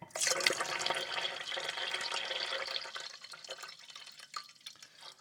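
Water filtered by a reverse osmosis filter pours steadily into a tea kettle at breakfast in a country home, a continuous splashing rush that starts loud and gradually softens and thins toward the end, with no voices present.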